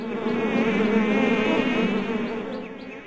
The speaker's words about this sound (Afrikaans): Voordat Drietjie vir Mani kan antwoord, hoor hulle 'n gezoem oor die boom se takke aankom.